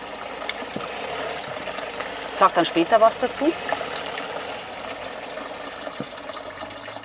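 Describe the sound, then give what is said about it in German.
Water is poured for a second or so, the third water sample in a tasting comparison, a short burst of gurgling splashes into a vessel, with a few quiet spoken words before and after. “Jetzt okay. kommt das dritte Wasser. So, da kommt das dritte.”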